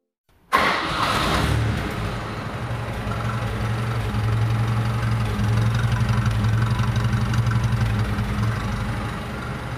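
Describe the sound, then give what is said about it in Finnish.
A carbureted engine with no fuel injection cranks briefly and fires up on the first try, then settles into a steady, loud, rumbling idle with a deep low-pitched throb that continues to the end, with no talking. “eka startilla lähtee ja kunnon pörinä.”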